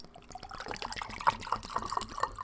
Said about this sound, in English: But if you are, then pour you a nice glass of Malort and just let it roll.